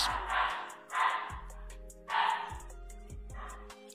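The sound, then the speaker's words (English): A dog barks and snarls aggressively in three rough, noisy bursts spread across a few seconds, moderately loud, as it fights with a chicken toy, with low steady tones underneath and no talking. “No, that's not the chicken. That's Miko. She sounds so aggressive.”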